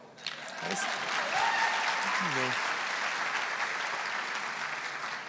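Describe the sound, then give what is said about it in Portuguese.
A church audience breaks into sustained applause, a dense wash of clapping that swells quickly and holds steady for several seconds, with a few faint voices calling out beneath it. “É, geralmente eles aplaudem.”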